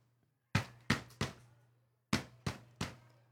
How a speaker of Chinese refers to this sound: 于是啊，由最前面一个人去敲门。